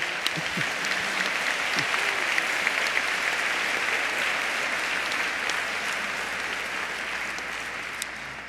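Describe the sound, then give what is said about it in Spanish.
A steady wash of audience applause for the performer playing Delilah in a just-staged tragic scene, many hands clapping densely and evenly for the full length, loud throughout with faint crowd murmur underneath and no talking over it. “Un aplauso para mi Dalila.”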